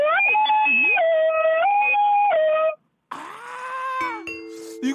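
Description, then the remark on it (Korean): A ding-dong-dang chime plays a sequence of loud, sustained tones stepping between pitches, pauses briefly, then sounds another chime phrase that settles onto lower held notes. No one speaks. “이것도 좋았고 아 좋았는데 아, 하나만 딩동댕인데 하나 아, 아쉽네.”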